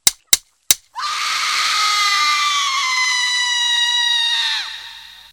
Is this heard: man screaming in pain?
yes